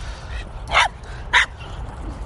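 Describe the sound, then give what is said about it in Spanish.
Two short, sharp dog barks about half a second apart over a low steady background rumble, with a playful, excited feel, as the dogs play, running and chasing each other on the way back home. “Y ya pues los oís aquí activos y ladrando y correteando, persiguiéndose uno con otro.”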